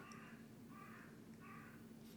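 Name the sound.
crow cawing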